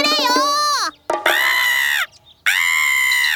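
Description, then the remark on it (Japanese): Three loud, drawn-out crow caws, harsh, separated by short pauses; they sound like a human voice imitating a crow perched on the roof of a temple gate. “カラスの鳴き声を、母さんだ母さんだという意味だと思ったグツは家に帰って言いました母さん和尚さん母さんだ母さんだって言ってるよ”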